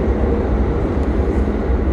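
A steady, loud low rumble of a tram echoing through the Kraków Główny Tunel underground tram stop in Kraków, Poland, a continuous heavy rolling drone with no voices.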